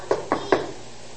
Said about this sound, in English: A few years ago, I was in the home of a woman who had no fewer than five locks on her front door. You knock on the front door.